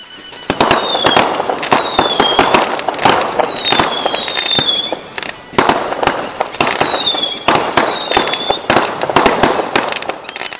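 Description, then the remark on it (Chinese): Firecrackers and fireworks go off in the evening in a dense, continuous volley of sharp, loud cracks and pops, with high whistling tones streaking through the barrage. A household sets them off after preparing dinner and the ancestor offering, to show it is about to eat. “晚上不出门也能知道谁家吃没吃晚饭，因为在饭菜准备好祭祖之后，就要放鞭炮与烟花，表示这户人准备开饭了。”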